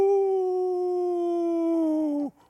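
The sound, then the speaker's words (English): A voice imitates an incoming 105 or 155 millimeter howitzer shell, fired at night from a fire base outside a town into the countryside, with one long, loud, steady "whooo" that glides slowly downward in pitch for about two seconds, then cuts off abruptly. “Every night at night, I would hear the artillery guns from the fire base just outside of uh, town firing their 105 millimeter or 155 millimeter howitzer guns out into the countryside. Uh, frightening. At first, you would hear, whoom, whoo”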